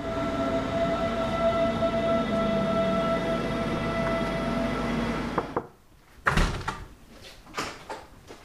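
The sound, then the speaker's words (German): An S1 S-Bahn commuter train to Freising rumbles steadily along the rails with a high electric whine, then the noise drops away and a few sharp clunks and door sounds follow. “Also ab in die S1 und raus nach Freising zum Campus Weihenstephan.”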